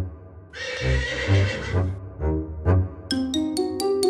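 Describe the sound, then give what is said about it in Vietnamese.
A horse whinnies loudly, followed by a couple of hoof clops and a run of bright, ringing chime-like tones. No one speaks. “Thì mụ nghe thấy tiếng vó ngựa mụ nghĩ rằng có ai đó đang lại gần”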